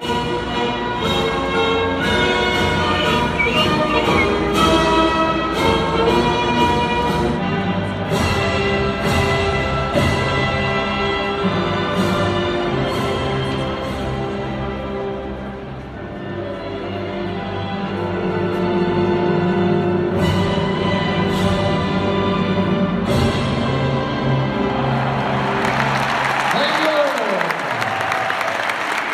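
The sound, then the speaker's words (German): A national anthem is sung by a standing crowd in a nearly full handball arena on a Wednesday evening before a handball match, voices holding long sustained notes and echoing. In the final seconds the singing gives way to a swell of crowd cheering and applause. “Aber wir stehen jetzt mal auf für die Hymne und äh, hören uns das Ding mal an hier äh, zusammen.”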